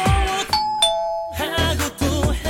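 A two-note doorbell ding-dong rings out clearly in the middle of a pop song, its high and lower chimes sustaining briefly before the band and vocals resume.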